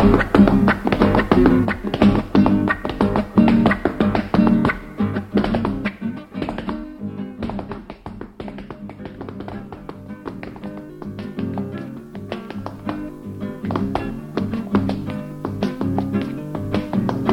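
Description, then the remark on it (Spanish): A recorded folk dance tune plays with steady rhythmic foot stamping and tapping by a master dancer throughout, loud, the percussive footwork driving the beat with no voices. “esto que escuchamos recién de Balambiando para los peones de Yupanqui y que baila el maestro”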